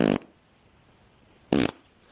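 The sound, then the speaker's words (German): Two short, loud fart sounds separated by about a second and a half of near silence, each a brief raspy burst, with no talking. “Jetzt nochmal Nummer 7, Achtung.”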